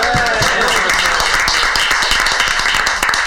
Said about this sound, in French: On peut l'applaudir.